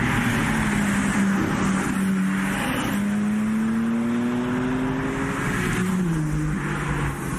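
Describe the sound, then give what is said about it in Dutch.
A BMW M3 Touring engine at the Goodwood Festival of Speed running loud, its deep, steady drone climbing slowly in pitch before dropping briefly near the end, with no talking over it. “M3 Touring, daar hebben ze wel kennis mee kunnen maken op het Goodwood Festival Speed, zoals je al zei, Frank.”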